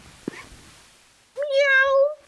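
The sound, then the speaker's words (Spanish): A person imitates a cat's meow as their turn in an animal-sound game: one drawn-out, nasal mew, fairly loud, following a brief quiet tap, with no other talking. “El gato siempre sale.”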